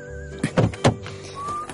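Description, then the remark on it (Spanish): A car door opening: a quick series of three heavy mechanical clunks and thuds, with a faint steady whistling tone humming before and after. “Abre la puerta.”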